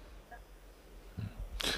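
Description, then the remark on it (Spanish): A single sneeze: a brief inhaled build-up followed by a sharp, breathy burst near the end. It sounds fairly quiet, with no talking around it. “Jesús.”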